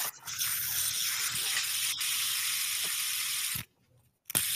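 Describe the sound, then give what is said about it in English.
A fidget spinner whirs with a steady, hissing buzz for several seconds, cuts off abruptly into near silence, then gives one brief burst of whirring at the end. “That's a fidget spinner.”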